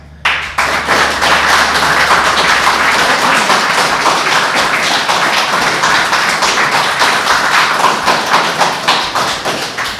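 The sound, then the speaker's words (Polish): An audience applauds steadily, a dense wash of many hands clapping at a strong, even level for the whole stretch after a brief quiet opening, with no voices on top. “Wasze oklaski są bardzo widoczne na naszych wykosikach”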